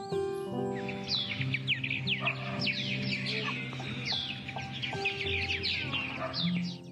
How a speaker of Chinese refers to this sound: 是陶渊明笔下的鸡犬相闻